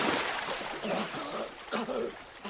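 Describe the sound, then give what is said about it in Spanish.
A loud, continuous rush of splashing, churning water as a man whose sleeve caught fire from a barbecue throws himself into a swimming pool to put out the flames and thrashes about. A voice speaks briefly over the noise. “Se tira a la piscina.”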